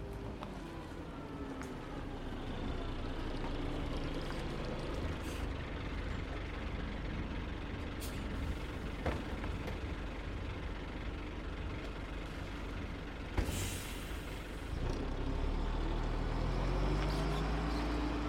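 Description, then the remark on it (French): The engine of a bus bound for Maniara in Tanzania rumbles steadily with a low, heavy drone, punctuated by a few sharp hisses of air brakes, one louder burst near the end as the engine note deepens. “Allez, venez, suivez-moi, on va prendre cette fois le bus direction Maniara en Tanzanie.”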